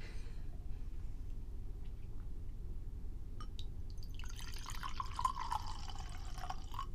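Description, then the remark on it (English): Wine pours into a glass, a steady splashing gurgle whose pitch rises as the glass fills, preceded by a few faint drips over a low background hum. “Do you guys want to hear some wine pouring ASMR?”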